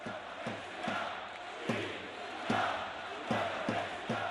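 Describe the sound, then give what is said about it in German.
A huge stadium crowd at an FC Barcelona home match roars the Catalan independence battle cry 'Independencia' in unison, 17 minutes and 14 seconds into the game, loud rhythmic accents punching through a dense wall of voices every half second or so. “Independencia brüllen die Menschen dann Unabhängigkeit. Aus dem Stadion hat es der Schlachtruf auf die Straße geschafft.”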